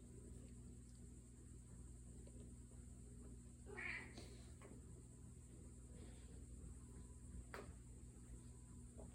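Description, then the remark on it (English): A single short meow from a female cat, somewhat sharp and complaining in tone, rises briefly over a steady low electrical hum with no one talking. “She sounds annoyed.”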